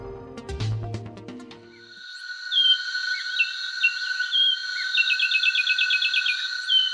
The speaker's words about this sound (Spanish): Así canta el pinzón con el rostro, un pájaro de 16 centímetros de altura que tiene la cabeza gris con dos estrías negras en la coronilla y una lista ocular negra que se prolonga hasta la nuca. El pico es en forma de cono y de allí su nombre.